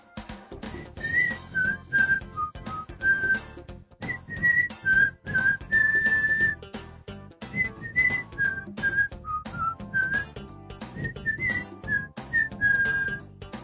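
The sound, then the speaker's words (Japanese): A whistled melody from a foreign video introducing a folding camper carries on throughout, clear, with short bright notes and a few held tones, backed by a steady rhythmic accompaniment with percussive beats and no talking. “あと一番気になったのが、向こうの人の口笛ってなんか不思議な音に聞こえる。”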